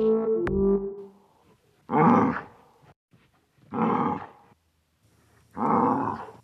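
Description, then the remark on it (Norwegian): A moose bellows three times, each loud, rough call lasting under a second and spaced about two seconds apart, after a brief tonal sound at the start. “Elgen brøler og elger av gårde.”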